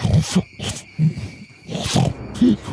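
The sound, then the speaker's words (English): A humanoid creature with yellowish eyes and no nose growls in a string of low, guttural grunts broken by rough, breathy snorts, coming in uneven bursts of about five or six over a few seconds, fairly loud, with no talking. “And it speaks, mm, not so much in words, but more so in coughing gutturals as it grunts and, and still somehow seems to snort.”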